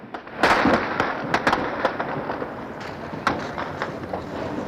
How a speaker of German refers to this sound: Schüsse am Potsdamer Platz. Wir können von hier aus nicht beobachten, wohin geschossen wird und ob diese Schüsse aus russischen oder von Karabinern der Volkspolizei stammen.